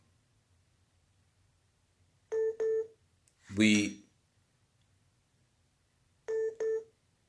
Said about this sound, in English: I got a phone call coming in and you know what? Hold on. Hold on.